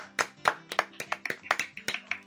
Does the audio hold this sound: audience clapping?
yes